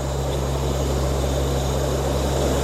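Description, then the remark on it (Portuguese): A steady, loud airplane engine drone with a deep propeller hum, constant throughout as if heard from inside the aircraft in flight near Port-au-Prince, Haiti, with no talking. “Na última noite chegou um avião com ajuda humanitária para reforçar a missão portuguesa que está no Haiti.”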